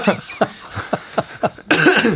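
cough

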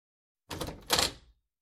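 room door opening

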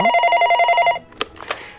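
telephone ringing

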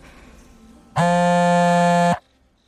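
mobile phone vibrating

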